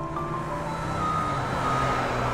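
A garbage truck idles with a low engine rumble while a steady, high-pitched reversing beep sounds over it, with no talking.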